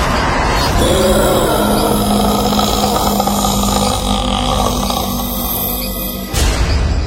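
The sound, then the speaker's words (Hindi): A man kneeling with head and shoulders bowed growls low and rough like an angry animal in a changed, suppressed voice, one long, loud rumble that holds for about five seconds before cutting off abruptly. “sir और कंधे उसके झुक गए थे उसकी आवाज भी बदल गई थी और हल्की दबी हुई आवाज में रजत इस वक्त किसी गुस्सैल जानवर की तरह गुर्रा रहा था”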